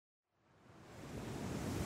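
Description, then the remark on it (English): Broad, rushing wind and sea surf fade in from silence and swell steadily to a loud, continuous roar, with no voices. “It's so windy! Look at the sea and the waves!”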